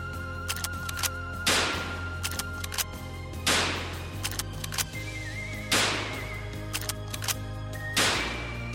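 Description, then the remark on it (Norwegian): Four sharp rifle shots ring out one at a time during a shooting course, spaced roughly two seconds apart, each with a brief echoing tail over a steady low background hum. “Først skjøt vi med treningsskudd for å gjøre oss kjent med børsa og drillen, før vi gikk over på skarp ammunisjon og oppskyting.”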